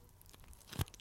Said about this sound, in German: Ich habe sie schon so oft Käsestange essen sehen.